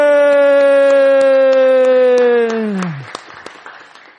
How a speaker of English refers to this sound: Let's have a giant round of applause for the kids that opened the gifts.